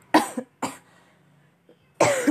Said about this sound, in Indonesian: ntar aku mau batuk lagi nih gak enak banget ya guys cerita sambil batuk